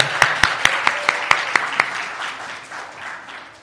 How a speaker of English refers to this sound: Yeah, give yourself applause. That's good.